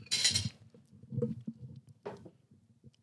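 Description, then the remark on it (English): Dishes clatter and clink, with a bright crash at the start and a few more scattered knocks of crockery and cutlery over low rumbling handling noise. “You have a lot of dishes, I feel like.”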